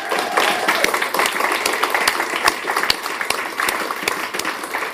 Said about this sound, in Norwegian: De er konfirmanter. De er 15 år i dag. Skal vi gi dem en klapp?